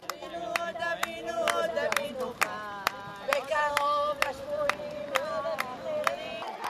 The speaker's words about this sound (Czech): Dav se stále rozrůstal. Podél cesty se rozmístili policisté.